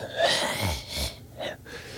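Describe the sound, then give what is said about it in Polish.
A voice imitates a man's heavy, breathy panting right behind someone in a club: several rough, noisy exhalations in an uneven rhythm, fairly loud, with no words spoken. “No i siedzimy na loży i gościu centralnie stanął obok mnie i dyszy mi za mną tak.”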